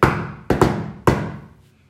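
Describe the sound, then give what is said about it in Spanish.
Four sharp knocks on a door in a rhythmic pattern: a single rap, a quick double, then one more, each resonant with a short ringing decay. “o sea, puede ser que una persona para ellos cuando toquen la puerta siempre lo normal sea hacerla así, ¿no?”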